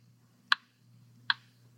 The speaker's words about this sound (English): The clock kept ticking.